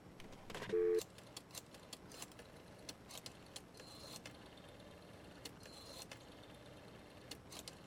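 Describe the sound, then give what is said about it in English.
Pages of a telephone book flipped in quick succession while looking up a phone number, a string of short papery swishes and flicks, with one louder riffle near the start and no voices. “The sound of the flipping of pages.”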